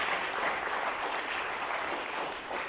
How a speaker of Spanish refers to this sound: Si se lo va a dar, déselo al Señor ese aplauso, por favor.